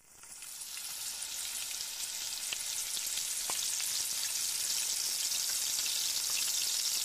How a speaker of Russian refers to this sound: Теперь вновь промокните рыб бумажным полотенцем и положите рыбу на сковороду или ваш вок одним движением.